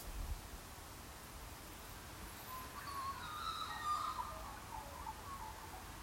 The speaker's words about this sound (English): God, I love listening to those birds.